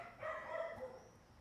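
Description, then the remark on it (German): A dog gives a single drawn-out, yelping bark, fairly faint over a quiet background, with no one speaking. “da bellt sogar der Hund.”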